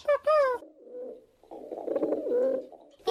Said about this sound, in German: Die Tauben kommen zurück